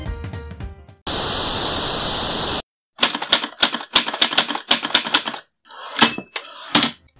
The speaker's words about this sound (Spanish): ¿Alguien reconoce ese sonido? La antigua máquina de escribir hoy es una pieza de museo, como el teletipo, el fax y tantas otras.